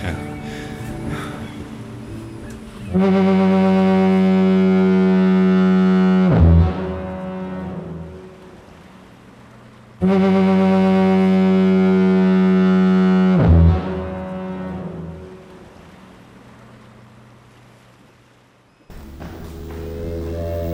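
Two long, loud foghorn blasts, each a deep, harmonically rich drone holding for about three seconds before cutting off, separated by a brief pause with a low rumble underneath.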